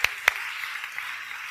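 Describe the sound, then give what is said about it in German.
Light applause from a small audience: two sharp claps open it, then a soft, steady patter of clapping hands continues. No one speaks. “Ja, super, Dankeschön, Applaus.”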